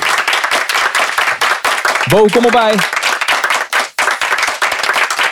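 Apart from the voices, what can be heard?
audience applause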